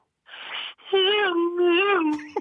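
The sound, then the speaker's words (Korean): A radio caller vocally imitates two cars racing in a chase: a short breathy whoosh, then a sustained, wavering buzzy vroom held for about a second and a half, fairly loud, with no other sounds. “자동차 두 대가 빨리 간다.”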